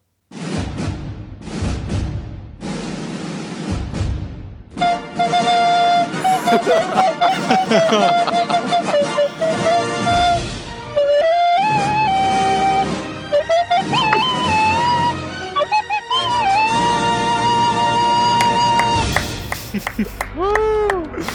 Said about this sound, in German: Aber wenn wir schon die hundertste Folge haben, dann beginnen wir auch gebührend mit einer Fanfare.